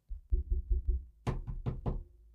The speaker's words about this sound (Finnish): Videot olivat joko täysin äänettömiä tai sitten ne sisälsivät erinäisiä suhteellisen karmivia ääniä tai tällaisia perinteisiä mikrofonin ja pöydän naputuksia, joita kuulette.